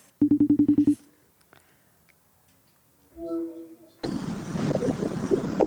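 A phone call is placed to a VV Alkmaar football player: a rapid run of about eight dialing beeps opens, followed by a brief pause and a short ringing tone on the line, then a burst of noisy, muffled background sound.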